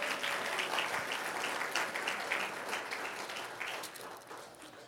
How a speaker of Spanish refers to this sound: Puede sentarse, gloria a Dios, mientras se sienta, denle un fuerte aplauso al Señor, amén.